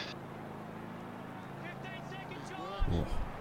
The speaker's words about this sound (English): can hear a helicopter going around.